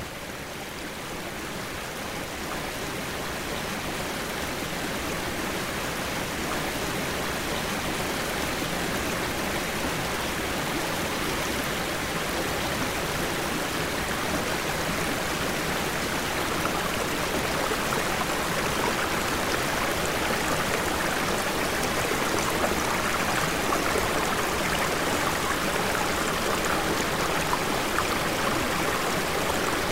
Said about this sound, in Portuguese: movimento das águas forma uma nova paisagem sonora, destacada dos sons da mata.